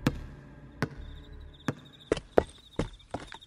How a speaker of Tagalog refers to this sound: Pagkatapos mabilis itong umalis papuntang second floor at naglaho sa dilim. Narinig din namin ulit ang pagtalbog ng bola mula roon.